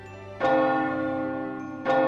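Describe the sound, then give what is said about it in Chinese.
A clock bell striking eleven o'clock, heard at the entrance of a grand hotel; two strikes about a second and a half apart, each loud, resonant chime ringing on with a rich, humming tone between strikes. No one speaks. “直到听见敲了十一响钟声后，才下定决心，鼓起勇气，一脚步入大门。”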